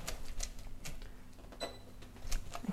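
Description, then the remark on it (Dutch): Potatoes being mashed with a masher: a steady series of soft clacks and thumps, roughly two or three per second, as the masher strikes the pot, with no talking. “Oh, ik ga hem even stampen”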